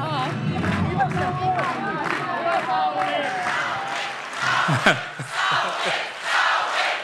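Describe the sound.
A crowd of supporters on the night of Finland's presidential election, 5 February, cheers and shouts loudly and continuously, with whoops and scattered applause building into a sustained roar of excited voices.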